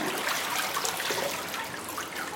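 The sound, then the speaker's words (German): Water from a fibre-and-water mixture trickles and patters steadily through the fine mesh of a papermaker's sieve as the fibres spread over it and a sheet of paper forms, a continuous splashing and dribbling sound with no voices, lasting a few seconds. “Und Sie sehen, das Wasser rinnt hier ganz flugs durch die Maschen durch und es ist ein Papier entstanden.”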